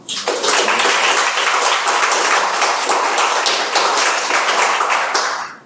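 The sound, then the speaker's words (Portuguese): An audience bursts into a steady round of applause, many hands clapping densely and loudly for several seconds before it quickly dies away. “Se você concorda com isso que foi falado, por favor, dê uma salva de palmas.”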